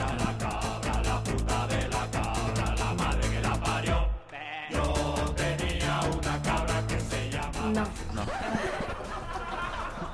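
A goat bleats in wavering, drawn-out cries layered over a dense, loud musical backing, with a brief near-silent gap midway before the bleating and music resume.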